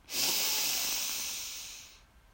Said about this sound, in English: We take three deep breaths together, extending our belly as we breathe in deeply and fully. We exhale with a loud sigh after holding at the top. So breathe in